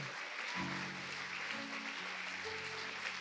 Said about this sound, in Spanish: Junte sus palmas. Dele fuerte el aplauso. Fuerte, fuerte el aplauso. Es para Él. Solo para Él.